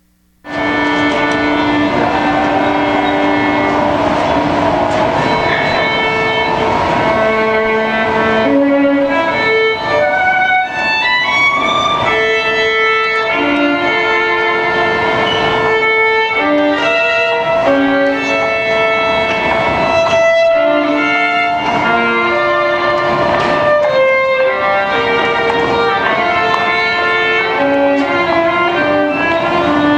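Loud, continuous instrumental music with a flowing melody of sustained, ringing notes, played as people walk by, without pause for the full half minute, with no one speaking over it.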